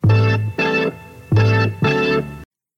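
The opening riff of a Latin rock song: four loud, sustained, bright-toned notes in a syncopated two-by-two rhythm, played alone with no voices, then cutting off abruptly.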